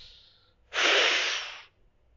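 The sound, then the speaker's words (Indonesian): One long, deep breath drawn in during a breathing exercise, a breathy rush lasting about a second, following a faint soft exhale, with quiet around it and no talking. “Tarik nafas, Buang Tarik nafas”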